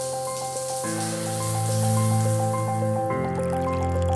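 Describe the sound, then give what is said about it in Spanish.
Water runs steadily from a shower, a continuous spray with dripping and splashing over a sustained tonal hum, with no voices. “Una ducha.”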